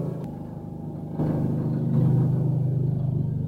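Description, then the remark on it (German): A helicopter drones overhead, a deep, steady rumble with a throbbing low hum that swells louder about a second in and holds, with no voices. “Oh, was ist das, ein Hubschrauber?”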